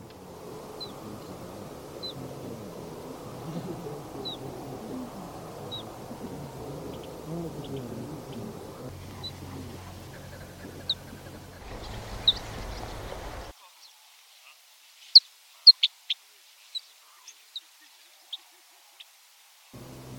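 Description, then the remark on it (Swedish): Soft, short bird calls of three call types, soft pju calls, plätt calls and a few sli calls, come at scattered intervals over a murmuring background, then sharper, clearer chirps and clicks ring out alone after the background noise drops away. “Och ni kommer att höra, eh, ni kommer att höra både mjuka pjuläten, ni kommer att höra eh, plättläten och även några enstaka såna här sliläten.”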